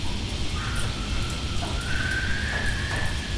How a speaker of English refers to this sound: And in the modern world, they're known as sheoaks. And of course, they grace the borders, the edges of the rivers. And as you sit under those trees and you hear the wind, some say Mara, picking up, getting stronger, and then starting to make that